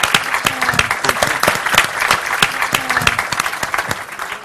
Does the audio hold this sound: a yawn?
no